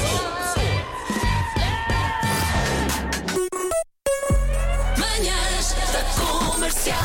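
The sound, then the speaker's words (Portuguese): Goats scream in loud, human-like yells, several cries overlapping into a noisy, wavering chorus that breaks off briefly midway before starting up again. “Cabras que gritam como pessoas.”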